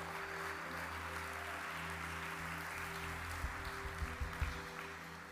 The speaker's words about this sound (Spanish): ¿Cuánto le dan un aplauso al Señor esta mañana?